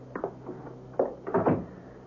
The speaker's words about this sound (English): One of them spoke. Come on in, Clark, and close the door.